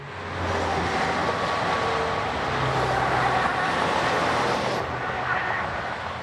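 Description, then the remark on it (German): A steady, dense roar of highway traffic behind the Bergisel ski jump in Innsbruck, Tyrol: thousands of cars and trucks from across Europe on the way over the Brenner rush past continuously, with low engine rumble and occasional tonal whines from passing vehicles. “Hinter der Skisprungschanze fahren tausende Autos und Lastwagen aus ganz Europa vorbei.”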